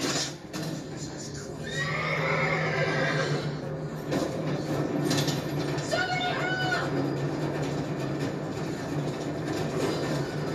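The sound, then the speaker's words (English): A spooked horse neighs loudly, with two rising, wavering whinnies over a steady low rumble and scattered background noise. “You should have gotten help the moment that this horse started spooking.”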